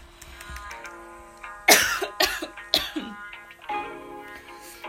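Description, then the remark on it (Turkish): A burst of three or four harsh, close-up coughs in quick succession, sounding loud and raspy, with quieter breathy throat noises before and after. “Gerçekten bütün gün öksürmedim.”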